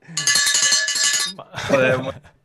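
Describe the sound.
Cowbells, a gift from a fan who cheered at the short track race on Friday, clang and rattle in a fast, steady jangle for about a second, bright and loud, then a second burst of clanking follows, partly mixed with a voice.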